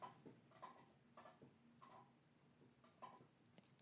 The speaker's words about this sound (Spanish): Eh, mi silla es una mierda, suena mucho, mira. Si me muevo un poco...